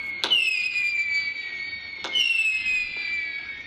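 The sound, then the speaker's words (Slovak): Fireworks going off: two sharp bangs about two seconds apart, each followed by a long, shrill whistling hiss that slowly dips in pitch and fades, with no voices. “Ups, vidíte, a ja sa budem musieť naučiť sláviť bez ohňostrojov, hoci len takto virtuálne.”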